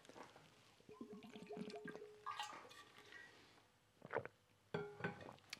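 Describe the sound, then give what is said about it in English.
Liquid sounds of someone getting a drink of water: a short gurgling pour, a few handling clunks, then sharp bumps and sloshes near the end, with no talking. “Let me grab some water.”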